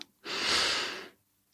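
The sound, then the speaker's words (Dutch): A single slow, deep breath drawn in through the nose during a guided breathing exercise, a soft airy rush that swells and fades over about a second, fairly quiet, with no talking. “En dan zeg je bij jezelf bij elke inademhaling:”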